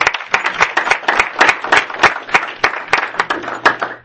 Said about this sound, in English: if we can give a round of applause again